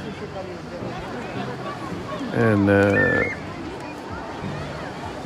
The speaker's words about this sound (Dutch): Ik lig nu op het strand. Ik heb mijn eh, iPhone op mijn linkerborst liggen.